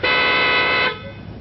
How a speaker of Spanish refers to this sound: He oído el claxon. ¿Has tocado el claxon? Oh, yo no. Ah, sí, apenas he apoyado el codo. Es un claxon muy sensible. En cuanto se le roza, ¿ves? solo con el codo.